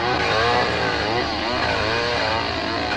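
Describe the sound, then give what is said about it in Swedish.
A chainsaw roars loudly without a break, its engine pitch rising and dipping as it bites into wood, cutting down a tree in summer. “Och det var sommar och så var det att om det var pappa eller grannen som skulle såga ner ett träd.”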